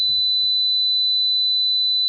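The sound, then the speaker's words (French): A steady, high-pitched pure test tone holds at one constant pitch for the full two seconds, loud and unwavering, with a brief low rumble of handling noise underneath at the start. “Un 2000 Hz et un 4000 Hz.”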